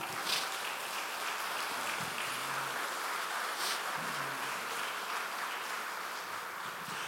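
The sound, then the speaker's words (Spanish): An audience applauds steadily for several seconds in praise of God during a sermon, a dense wash of many hands clapping at an even, fairly loud level with no voices standing out. “Gloria a Dios, démosle un aplauso a Él, sí.”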